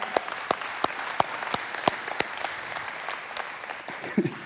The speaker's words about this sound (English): The church runs almost 300 people now. And here's what, yeah, you can clap for that.